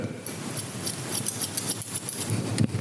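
Quick, repeated snipping of scissors cutting a man's hair live, in a busy rhythmic patter over a low background hum with no one talking.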